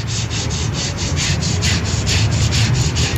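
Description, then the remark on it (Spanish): Women from the municipality sand a surface while cleaning up: sandpaper scrapes steadily in quick, repeated back-and-forth strokes, a raspy rubbing that continues without pause and with no voices. “Escuchen el sonido de la lija.”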